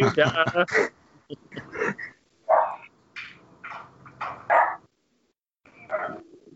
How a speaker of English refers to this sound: Did I hear a dog barking? Yeah, that's my my two dogs. Sorry about that. my German Shepherd's going ape shit for some reason.